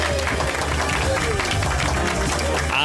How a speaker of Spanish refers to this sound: Pues muy bien, estupendo, unos aplausos para ti.